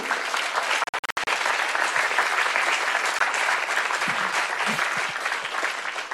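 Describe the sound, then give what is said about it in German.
A crowd breaks into sustained applause, a dense, steady wash of many hands clapping at a fairly loud level, with a brief dip near the start before it continues unbroken. “I always appreciate the first clapper.”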